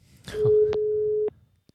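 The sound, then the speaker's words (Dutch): A single steady electronic telephone ringing tone, a low pure beep lasting about a second, heard alone and clearly with faint background noise, as when waiting for a call to connect. “Ik had wel gezegd, we zullen bellen rond dat uur.”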